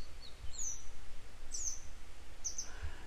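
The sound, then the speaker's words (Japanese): Short, high-pitched bird chirps, a parent grey wagtail whose chick has fallen from the nest, calling in brief bursts about once a second, standing out clearly over a steady low rumble of background noise. “でも実はあれは本能的なもんで、やっぱりなんとかしてって言ってたのかなねずっと泣いてますね。”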